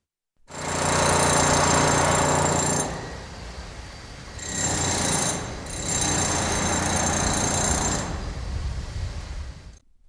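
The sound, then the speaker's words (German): Loud, harsh mechanical hammering in three long bursts with brief pauses, a dense rattling clatter of tools knocking plaster off old walls in dusty air, in a building being converted into a sociocultural centre, where a print workshop and an office will be. No voices. “Dort, wo bald eine Druckwerkstatt und ein Initiativenbüro ihren Platz finden werden, wird Putz von alten Wänden der Stratze geschlagen.”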